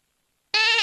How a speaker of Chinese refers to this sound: 小毛驴似乎听懂了，轻轻地叫唤了一声：“ 嗯。”